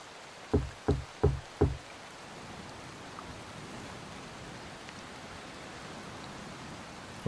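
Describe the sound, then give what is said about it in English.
Four firm, evenly spaced knocks on the only door of a lighthouse during a storm, loud, followed by several seconds of a steady rain-like hiss in the background. “He knocked again, louder this time.”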